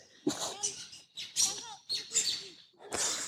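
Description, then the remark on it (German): Birds chirp in a series of short, bright bursts, clear, arriving at an uneven pace with brief pauses between the calls. “Das sind Vögel, das sind alles Vögel.”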